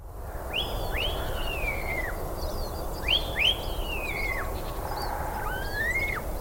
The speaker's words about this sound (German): Und zehn Minuten später ist dann Sonnenaufgang und dann kannst du auch endlich den Gesang vom Star hören.